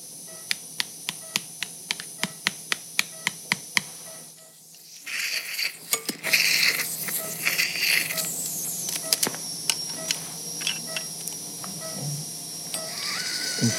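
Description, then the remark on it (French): During ligament repair surgery, a surgical hammer taps a bone anchor down into the coronoid process of the ulna: about a dozen sharp, evenly spaced metallic knocks, then a denser wash of noise with scattered irregular clicks and taps. No one speaks. “Marteau, on descend l'encre dans la coronoïde du cubitus.”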